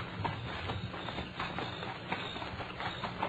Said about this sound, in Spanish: Sí, ahí viene un pelazo subiendo a caballo. Y como tú dices, pues, no puede ser otro que Porfirio.